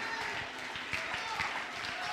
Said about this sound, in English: It's all right to clap your hands in church.